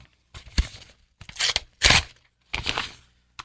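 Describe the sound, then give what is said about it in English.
A paper envelope tears open in several quick, rasping rips with brief pauses between them, fairly loud, ending in a short sharp final tear. “envelope number three.”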